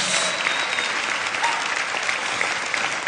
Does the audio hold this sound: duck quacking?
no